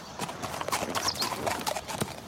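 Horse hooves clip-clop steadily on a hard surface, a quick run of sharp knocking steps, with a faint bird-like chirp and light background noise.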